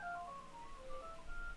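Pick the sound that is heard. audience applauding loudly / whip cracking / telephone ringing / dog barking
telephone ringing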